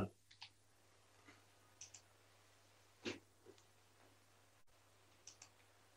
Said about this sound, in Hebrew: בוא נניח שאנחנו, יש לנו מקלדת? כן. יכול להקיש נניח בפייסבוק, אה, שהיא חלק מהמדד.